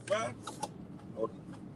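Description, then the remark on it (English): Steady low engine rumble fills a car interior, with brief muffled voice sounds and faint clicks rising over the drone now and then. “It's real live going on. I'm in the car.”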